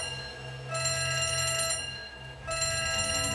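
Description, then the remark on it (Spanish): A harsh electronic alarm rings at Area 51 in two loud bursts, cutting off briefly in the middle before resuming, with a steady high-pitched buzzing tone and no voices. “En un momento se encendieron las alarmas, pero al ir a revisar qué pasaba, y para su sorpresa, el monstruo ya no se encontraba en su celda.”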